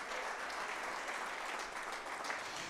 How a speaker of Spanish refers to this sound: Fuerte ese aplauso a nuestro Dios en esta tarde. Aleluya. Gloria a Dios.